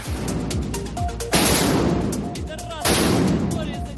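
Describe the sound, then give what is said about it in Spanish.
Battle sounds from the fighting for the town of Soledad in Donetsk, Ukraine: repeated sharp gunfire cracks with heavy artillery booms, including two big blasts followed by long rumbling echoes, dense and loud throughout. “Con los sonidos de los eh, combates que se han mantenido allí en las últimas horas.”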